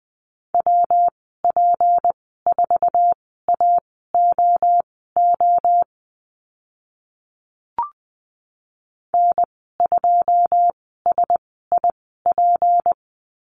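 Morse code call signs from a lesson on the letter p, sent at a quick 20 words per minute, a steady mid-pitched beep keyed in crisp dots and dashes, with a pause and a single click midway before sending resumes.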